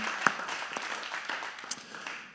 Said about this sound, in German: Vielen Dank an Technikteam, und alle, die mitgemacht haben. Gebt ihnen mal einen riesen Applaus.